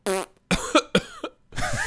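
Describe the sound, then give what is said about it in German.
A person coughs deliberately several times, a quick run of about five sharp, throaty bursts with voiced edges and brief pauses between them, fairly loud with no talking. “ja, ich huste immer so.”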